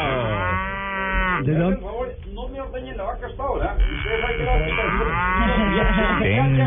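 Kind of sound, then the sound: animal, dairy cow mooing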